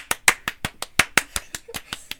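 A short burst of hand clapping, close by, with about a dozen crisp, sharp claps in a quick, fairly steady rhythm, like one or two people applauding.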